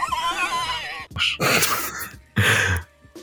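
A herd of pigs in Extremadura squealing and grunting: a long, wavering high-pitched squeal gives way to loud, rough grunting bursts separated by short pauses. Fairly loud, with no talking.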